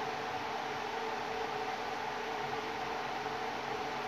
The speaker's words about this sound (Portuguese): Nossa, eu tenho que ficar na frente. Eu não queria ficar na frente do ventilador porque vai ficar ruim pra vocês escutar. Mas não dá, cara. Tá muito calor.